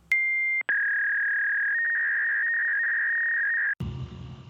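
A phone ringing tone: a short electronic beep, then one long, steady, high-pitched tone lasting about three seconds, which cuts off abruptly as the call connects and line noise begins.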